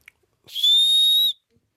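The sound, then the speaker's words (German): A small whistle set in the back of a children's toy gives one shrill, steady high-pitched blast lasting under a second, fairly loud, with a faint click before it and quiet afterward. “Genauso wie bei der Arschpfeiferrissel. Da ist auch hinten eine Pfeife drinnen.”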